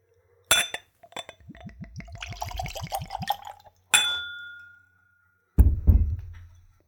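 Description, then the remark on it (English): A sharp clink, then a few seconds of glugging as a neat spirit is poured into a clean Glencairn whiskey nosing glass with rising pitch, followed by a ringing glass chime and a final knock, clear. “I'm using a clean Glencairn glass for that purpose. It's a whiskey nosing glass, ideal for seeing the spirit, nosing the spirit, and of course, tasting the spirit.”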